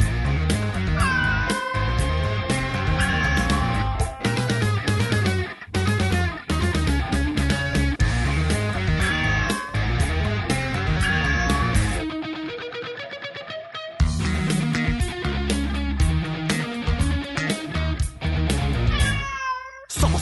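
Repeated cat meows ring out over loud, driving music with a steady beat, sliding up and down in pitch and blending into the dense mix almost continuously, with a brief drop-out midway.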